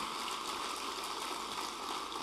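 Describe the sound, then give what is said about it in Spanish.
A large crowd of worshippers claps together for the Lord after a prayer at a religious service, in a dense, steady wash of applause that stays loud and even throughout, with no voices standing out. “Dale un fuerte aplauso al Señor.”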